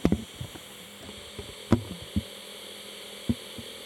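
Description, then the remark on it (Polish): A steady, low-level electronic hiss from a tape recorder's amplifier during playback runs throughout with a faint hum underneath, punctuated by several soft mechanical clicks and thumps at irregular intervals. “Tak jak jest to się to bardziej się szum wzmacniacza.”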